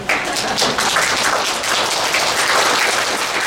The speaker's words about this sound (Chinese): 哎，你们要听的不错，要拍拍手啊！